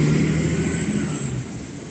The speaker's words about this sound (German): Jetzt lassen wir den Bus kurz fahren.